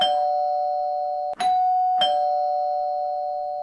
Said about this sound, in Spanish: Madre mía, ahora otra vez llamar al timbre, de verdad. Es que aquí no puede ser, ¿eh? Bueno, vamos a ver quién es.